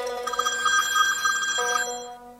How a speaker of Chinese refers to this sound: 电话又响了起来。